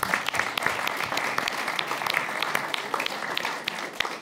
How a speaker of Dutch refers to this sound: Ja, we klappen ook voor Zelensky. Dat was een goede mop.